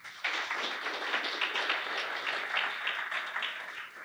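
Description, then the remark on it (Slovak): A crowd applauds steadily, dense overlapping claps starting abruptly and holding at an even level for several seconds, sounding like many people clapping together. “Poprosím potlesk.”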